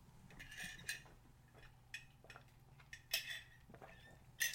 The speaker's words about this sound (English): All right, I'm going to take a sip of water really quick.